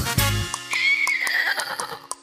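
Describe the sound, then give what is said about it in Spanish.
A horse whinnies in a single high, wavering call that trails downward, heard over light, rhythmic background music with a soft thump at the start. “Mi abuelo a caballo me lleva a pasear.”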